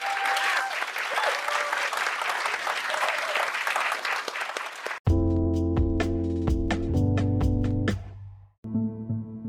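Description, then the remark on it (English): A crowd claps steadily for about five seconds for a panel of speakers, a dense, even wash of applause, which then cuts abruptly to loud tonal music with strong sustained bass notes. “All right, well, let's give the uh, panelists a round of applause here.”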